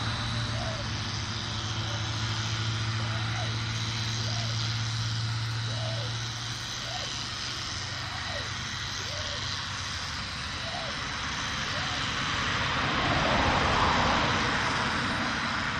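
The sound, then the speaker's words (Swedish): Rhythmic scrubbing of a toothbrush repeats steadily as a person brushes their teeth outdoors beside a meadow and a road, set against a wide wash of road traffic and a low engine drone that fades midway. “Så här låter det när man borstar tänderna vid en äng och en bilväg.”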